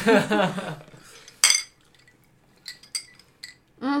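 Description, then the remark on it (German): A single sharp, bright clink of drinking glasses tapped together in a toast, followed by a few softer clinks and rattles. Voices are heard briefly before and after the toast. “Prost!”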